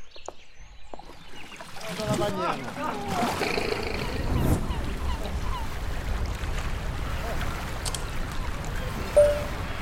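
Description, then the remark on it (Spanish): A motorboat's engine drones steadily on the water as it carries a passenger from Tigre toward a lodge on the Caraguatá stream in the delta, building to a constant low rumble with churning noise. Faint voices and brief honk-like calls come through near the start. “ya estoy en la lancha, pero como buena chica de ciudad no doy más de la ansiedad por llegar.”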